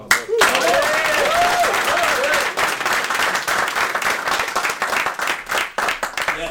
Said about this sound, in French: C'est parce qu'ils n'ont pas encore vu le code qu'ils applaudissent.